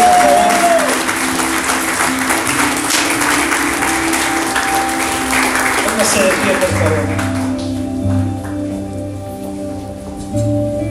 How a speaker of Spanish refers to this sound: ¿Alguien puede aplaudirme por por favor.